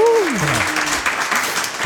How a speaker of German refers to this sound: wir haben noch eine ganz äh, Besonderheit heute. Wir zeichnen mich erstmal vor Publikum auf. Stimmt. Macht euch mal bemerkbar, jubelt ja.